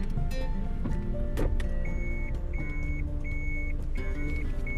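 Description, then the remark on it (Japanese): A car engine rumbles low and steady while a parking sensor sounds a regular series of short, high electronic beeps as the car slowly pulls into a spot on arriving at the driver's workplace. “あすいませんちょっと今職場に着いたんで車止めてます。”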